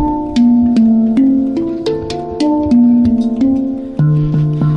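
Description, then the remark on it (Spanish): About ten ringing notes are struck one after another at a steady, unhurried pace on a resonant percussion instrument with a resonance box underneath and several slits on top, each slit a musical note. Each tone sustains and overlaps the next, forming a slow melody that ends on a deeper note. “Y por la parte de encima tiene varias, varias hendiduras, cada una de ellas es una nota musical.”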